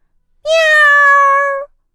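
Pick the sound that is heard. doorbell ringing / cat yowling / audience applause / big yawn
cat yowling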